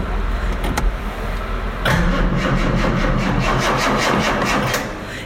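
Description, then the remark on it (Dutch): A Jaguar E-Type engine cranks with rapid rhythmic churning as it tries to start: a brief starter whir first, then a sustained loud cranking that keeps trying without catching. The car has a battery problem. “Alleen het geluid van zo'n ding. Hm wie kent er nou geen Jaguar E-Type?”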